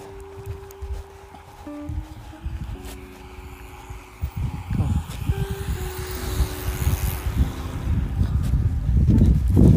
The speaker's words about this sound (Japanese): あなんかチャリチャリ軍団4人が走ってきましたが大丈夫かな僕光れないちょっと寄ります